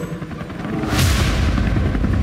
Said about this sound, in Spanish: Vamos a levantar en el helicóptero.